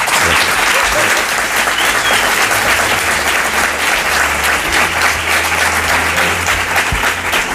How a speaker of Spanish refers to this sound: Este, el aplauso que le dan al, presidente y sin regidor que les diga que tienen que aplaudir ni nada, ¿eh? Qué cosa.